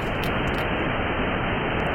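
Bad weather recorded underwater by an ocean observatory on the seabed off Vesterålen: a dense, steady roar of rushing noise, loud and unbroken throughout, like wind and rain churning the surface heard from below. No voices.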